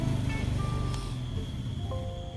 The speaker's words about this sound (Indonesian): ada suara motor nih lewat